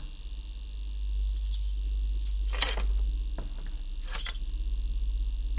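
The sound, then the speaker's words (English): Keys to a door jangle as they are handed over, in two short, bright bursts a little over a second apart, set against a steady low hum, with no one speaking. “Give me the keys to the door.”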